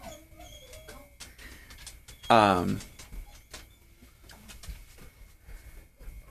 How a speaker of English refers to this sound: sorry, we were getting your dog corralled.